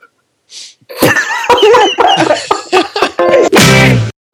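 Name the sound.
coughing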